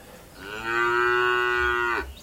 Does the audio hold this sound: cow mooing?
yes